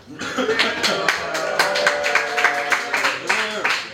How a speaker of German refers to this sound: Ja, also wenn ihr, wenn, ihr sozusagen so semi-motivierte Nerds üben akademischen Applaus. Das machen wir heute hier in der Marienstraße 11.